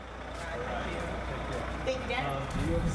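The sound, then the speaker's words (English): A giant bus idles right there at the bottom of the stairs, its engine a steady, loud low rumble that fills the whole stretch, with faint voices murmuring in the background. “There is a giant bus right there.”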